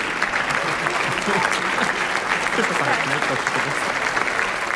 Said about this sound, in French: un public ultra enthousiaste applaudit à tout rompre un ou une artiste en standing ovation